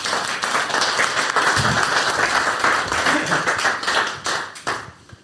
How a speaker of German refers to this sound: Ja, dann würde ich einmal kurz äh, um Applaus bitten